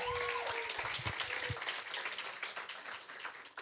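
An audience applauds for a pastor with a dense wash of clapping that stays steady for a few seconds, with a few whoops and cheers rising over it near the start.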